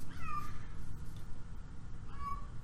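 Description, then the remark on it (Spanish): A cat meows twice, about two seconds apart, each call a clear rising-then-falling wail over a steady low rumble of background noise, with no voices; the cat is indoors. “Güey, tu gato está dentro, güey.”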